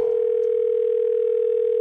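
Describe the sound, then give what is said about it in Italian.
A steady telephone dial tone hums at constant pitch for the whole stretch, loud, with no voices or other sounds alongside it, during a phone call to an electrician. “Terza telefonata all'elettricista.”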